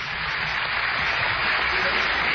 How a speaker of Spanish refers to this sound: Y los aplausos de la portátil.